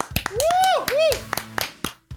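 Scattered, uneven hand claps of brief applause greeting a guest on a program, with two swooping rising-and-falling whoops or whistles cheering over them between the sharp claps.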